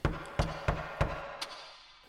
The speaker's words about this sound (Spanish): En el momento más oscuro de la noche, escuchó a alguien tocar su puerta.